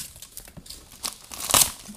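Wrapping paper crinkles and rustles as a gift wrapped tightly with lots of sticky tape is unwrapped, with scattered crackles building to a loud, sharp tearing burst near the end, then quieter rustling. No one speaks.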